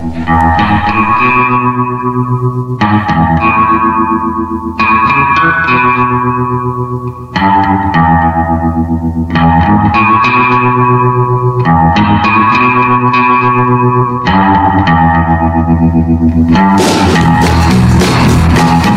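An instrumental passage of a song: rich, echoing chords struck in a steady pattern roughly every two and a half seconds, loud and close, ending in a brighter, fuller swell. No voices.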